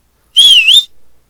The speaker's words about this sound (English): Um, Nope, that's a whistle. That's a whistle, not cool.